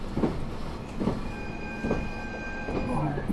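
A train runs steadily along the rails of Japan's Nemuro Main Line and Sekisho Line, between Obihiro, Shintoku and Minami-Chitose, with a constant rumble, its wheels thumping over rail joints at regular intervals, while a faint high whine holds underneath. No one speaks.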